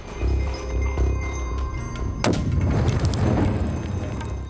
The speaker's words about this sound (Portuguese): A população da região ainda sofre com a explosão de minas terrestres colocadas há décadas em áreas rurais e urbanas.